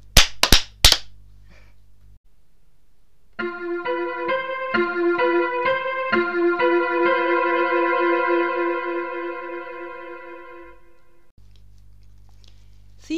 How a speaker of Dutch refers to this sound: Jij luistert ook naar ons, dus jij weet dat wij drie keer klappen voordat we het intro-stukje afronden. 3, 2, 1.